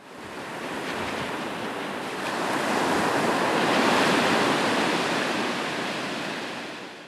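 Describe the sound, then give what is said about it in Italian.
Sea waves roll in and break on the shore, a broad rushing surf that swells louder midway and slowly recedes, with a steady windy hiss and no voices. “quanta voglia di spalancare quelle porte e fuggire verso le onde.”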